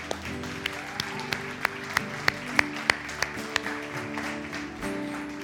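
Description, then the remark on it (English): A church audience claps in a steady, even rhythm over sustained instrumental music, celebrating those who have just prayed a commitment prayer, the sharp claps ringing out clearly, with a faint crowd murmur underneath. “Now, listen, the Bible says if you pray that prayer, the church here is going to celebrate with you, but all of heaven is celebrating. Come on, guys, let's join them.”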